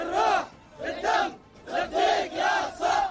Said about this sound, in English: Houthi militants celebrating, even dancing, aboard the cargo ship they seized off the coast of Yemen in the Red Sea.